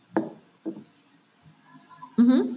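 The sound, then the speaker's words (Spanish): Two sharp metallic clanks about half a second apart, fairly loud, followed by faint rattling and then a brief voice-like sound at the end. “parecía que, estaban cortando latas.”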